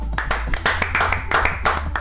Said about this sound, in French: Euh, je vous demande d'applaudir vaillamment à ma droite